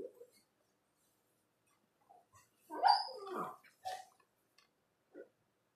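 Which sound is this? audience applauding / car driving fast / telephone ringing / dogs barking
dogs barking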